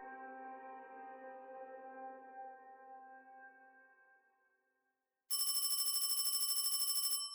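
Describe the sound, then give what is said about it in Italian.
A sustained tonal chord fades out into brief silence, then a loud telephone bell at a provincial Carabinieri station in Arbus starts ringing with a rapid, rattling trill that continues steadily to the end. “Una telefonata scuote la serenità di una stazione dei carabinieri di provincia.”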